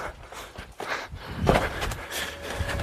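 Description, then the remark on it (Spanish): Quick, uneven footsteps thud and scuff as young people flee in a hurried run through corridors and down a staircase, with a hollow noisy background and no voices. “Los jóvenes huyen frenéticamente corriendo por los pasillos, bajando las escaleras a toda prisa”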